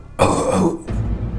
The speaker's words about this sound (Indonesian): nggak lama setelah itu Agung itu dengar dari ruang kamar itu itu seperti suara bapak-bapak yang lagi batuk